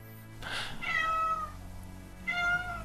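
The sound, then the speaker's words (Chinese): A cat meows twice, a drawn-out, wavering cry followed after a short pause by a second bright meow that is cut off at the end, both loud over a low steady hum. “他听懂了， 就是本身我没怕，他叫这两声，我有点慌了。”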